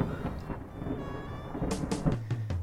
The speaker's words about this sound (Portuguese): Trovoada.